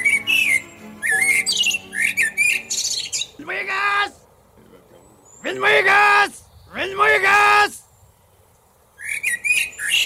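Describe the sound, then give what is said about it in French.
A voice imitates a bird, letting out a series of harsh, raspy squawks mixed with shrill chirping bursts, loud, in uneven clusters with short pauses between. “Une machine qui nous permet de comprendre le langage des oiseaux.”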